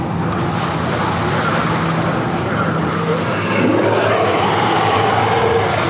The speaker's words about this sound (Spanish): Y una ventisca entró por todas partes.